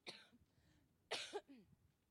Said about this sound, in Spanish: Me dio una faringitis muy fuerte, estuve en Puebla en cama, ya estoy de pie. Pero tengo mucha tos, así que si de repente toso, aplaude